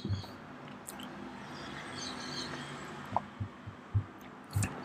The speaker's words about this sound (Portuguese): Pausa para beber água aqui.